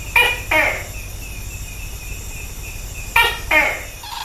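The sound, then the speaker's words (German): A tokay gecko calls twice, each a loud two-syllable croak a moment apart, over a steady backdrop of night insects buzzing. There is no speech. “Der Vogel der Woche ist gar keiner, sondern ein Gecko, der Toki.”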